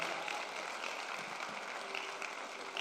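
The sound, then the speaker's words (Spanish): An audience applauding the Lord steadily, a dense wash of many hands clapping that stays even and fairly loud throughout, with no talk over it. “Vamos a darle ese aplauso fuerte al Señor.”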